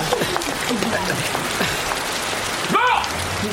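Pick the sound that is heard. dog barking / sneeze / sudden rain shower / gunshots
sudden rain shower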